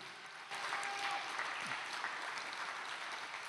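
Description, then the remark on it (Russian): Applause for the Lord from a large audience starts abruptly and continues steadily, a dense wash of many hands clapping at once with no voices. “Дай Господу огромные аплодисменты.”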